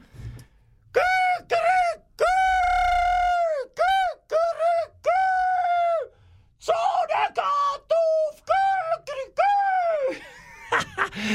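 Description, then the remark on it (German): A person imitates a rooster (Gückel) crowing while telling a story, with loud, drawn-out, strongly pitched calls, several long crows in a row followed by shorter, choppier bursts that trail off into breathy vocal sounds. “vor lauter Freude hat er dort, äh, hat er, ja, warte, ich mache den Gückel, warte, muss ich weg, so.”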